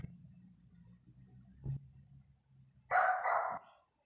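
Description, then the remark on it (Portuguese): A small Pomeranian dog lets out two quick, shrill yaps near the end, barking at dogs being walked past the door on the street, after a stretch of low, steady rumbling background hum. “Ele está lá fora agora, e aí nessa hora passa os cachorros, que os, os homens e as mulheres aqui da rua levam o cachorro para fazer seu xixi e cocôzinho, e quando passa aqui na porta, o luluzinho fica louco lá.”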